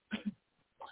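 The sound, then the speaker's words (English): An abrupt sneeze: two quick explosive bursts of breathy noise back to back, a brief pause, then another softer burst, with no talking. “Bless you, bless you, bless you.”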